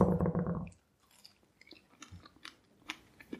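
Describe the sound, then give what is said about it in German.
Someone chews a strawberry with soft, wet, squelchy mouth sounds and small irregular clicks, after a brief louder muffled burst at the start. The chewing is faint and uneven, with no talking. “Warte, ich esse schnell die Erdbeere ja.”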